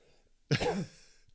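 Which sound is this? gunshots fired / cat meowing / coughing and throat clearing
coughing and throat clearing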